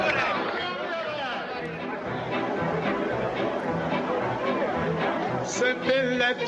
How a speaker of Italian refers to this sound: Qua c'è la folla che protesta, esatto.